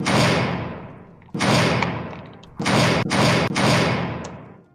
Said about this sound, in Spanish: Pues, parece que alguien está golpeando la puerta.